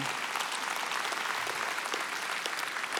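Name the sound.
audience applauding and cheering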